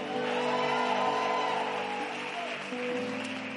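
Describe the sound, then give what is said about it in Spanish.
A large audience lets out a sustained, loud collective victory cry and whoops, many voices roaring together in a dense, echoing wall of cheering that holds steady for several seconds. “Hay alguien que lo puede, hay, que, hay alguien que puede dar un grito de victoria.”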